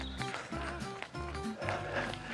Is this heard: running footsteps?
yes